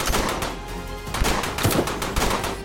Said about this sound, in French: Depuis la fenêtre de la chambre, Clyde ajuste son fusil et vide un nouveau chargeur.